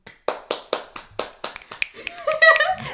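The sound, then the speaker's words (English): A quick run of crisp finger snaps, about eight in a steady, even rhythm, then a brief stretch of tonal, voice-like sound as the snapping trails off. “snap, snap.”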